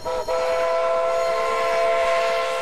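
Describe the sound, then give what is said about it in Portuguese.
A steam train's horn blares steadily with strong sustained tones over the rumble of the train on the rails, loud, with no voices. “E foi pelos trilhos do trem que Vital Brasil chegou com a família.”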